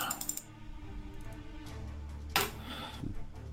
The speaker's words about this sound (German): Während ich hier meine 11 D6 würfel. In der Hoffnung, dass was Gutes bei rumkommt.